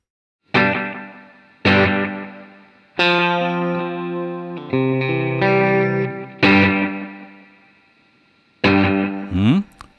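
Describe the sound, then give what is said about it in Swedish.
Electric guitar chords played through a tape echo using playback head 1 with REC 2 on, set for a single repeat: about six strummed chords ring out one after another, sustaining and fading, ending with a quick bent note. No talking. “vi börjar med uppspelningshuvud 1 och jag har på REC 2 så det här blir lite längre än vad det eh, originalet är.”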